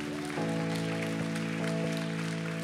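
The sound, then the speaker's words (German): A church audience claps steadily and densely after a prayer at a service, a continuous wash of applause over sustained keyboard chords that swell in partway through. “Lass uns jetzt mal einen riesigen Applaus geben.”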